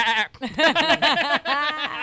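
A goat bleats loudly in two quavering, wavering calls with a shaky tremolo, and no other sounds around it.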